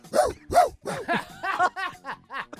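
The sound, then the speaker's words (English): A person imitates a barking dog, letting out a quick run of about nine short, yappy barks in close succession, fairly loud, with no other talking. “Barking like a dog.”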